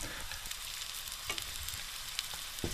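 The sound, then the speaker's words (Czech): Four to five diced onions sizzling in about one and a half decilitres of hot oil in a pan on a stove burner, a steady dense crackle with occasional sharper pops and spits, fairly loud with no talking. “Vy jste vzal pánev, dal jste to na plotnu, zapnul jste hořák, nalil jste tam olej, kolik ho tam je? Asi tak deci, deci a půl oleje, to stačí. Na to, až se to rozpálí, hodíme tu cibuli?”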